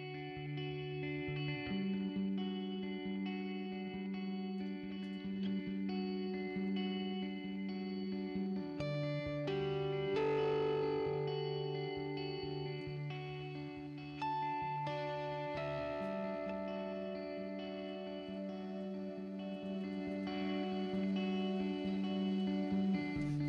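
A band's song plays steadily with no vocals, built on droning, effects-laden chords with distortion and a chorus-like shimmer. Around the middle the harmony shifts briefly before settling back into the sustained texture.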